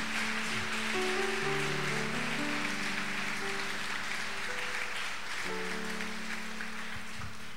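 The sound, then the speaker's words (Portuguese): A church audience applauds the Lord steadily and densely for several seconds, a continuous wash of clapping with sustained keyboard chords playing underneath. No one speaks. “Você pode aplaudir ao Senhor em nome de Jesus?”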